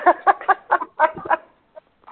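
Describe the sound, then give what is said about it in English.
A chicken clucks in a quick run of about eight short, throaty calls, then trails off into a couple of faint, scattered clucks before going quiet. “I've got to get that last chicken into the daytime run so that she's protected and doesn't get picked off by a hawk.”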